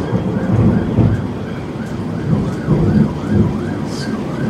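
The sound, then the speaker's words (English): Heavy rain pours steadily while deep thunder rumbles roll in several swelling waves, with a faint wavering siren-like tone drifting above the downpour. “Man, cats and dogs out there.”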